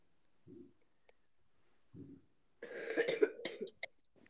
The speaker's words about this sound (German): Sorry, dass ich die ganze Zeit huste, ne?